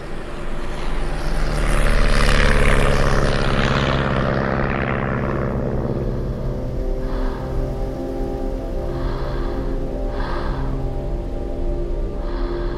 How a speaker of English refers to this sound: And I'm on an airplane. I haven't been on a plane in four years.